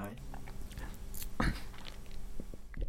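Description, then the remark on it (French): Chewing of BN chocolate biscuits, eaten with a cappuccino on a Thursday afternoon, with one loud crunchy bite near the middle and softer munching around it, over a low background hum and faint voices. “T'as des miettes de choco dans les dents, c'est pour ça c'est difficile.”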